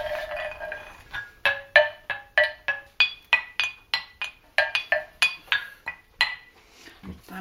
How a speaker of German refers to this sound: wenn man ein bisschen sanfteren Klang will, kann man ja solche Knöchelchen nehmen.